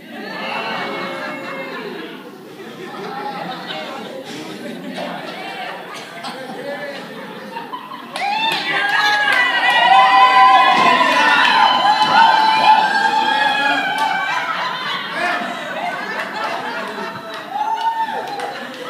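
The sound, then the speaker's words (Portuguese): A crowd cheers and shouts joyfully, a dense roar of many voices with excited high calls and children's shrieks, swelling louder midway and staying loud before easing slightly toward the end. “Após ele, subiu todo o povo, tocando gaitas e alegrando-se com grande alegria, de maneira que o seu clamor de alegria parecia fender-se a terra.”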